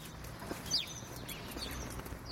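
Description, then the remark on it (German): A few short house sparrow chirps ring out over a steady outdoor background hum, spaced irregularly, with no one talking. “Ja, und wer weiß, vielleicht kann man so auch über den Vogel, der uns in dieser Sendung begleitet, noch genaueres sagen.”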